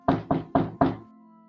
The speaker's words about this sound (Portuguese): Vocês escutam na porta fechada da taverna alguém batendo na porta.